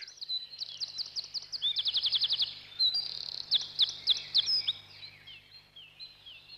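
A bird sings a bright, lively song of rapid trills and high chirps, continuous, with a soft low hum underneath.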